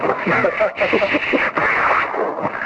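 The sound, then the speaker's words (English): A voice imitates a minigun spinning up: a loud, buzzing whirr that runs continuously for a few seconds with two brief breaks, sounding slightly muffled and tinny. “the minigun from, from like Predator when you mention that, specifically because of the starts humming and spinning the thing on its own”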